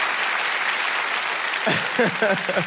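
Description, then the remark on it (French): An audience in Montreux applauds in a dense, steady wash of clapping. Partway through, a voice starts speaking over the fading applause. “On joue ensemble, vous êtes là, montre faites du bruit pour vous, c'est incroyable.”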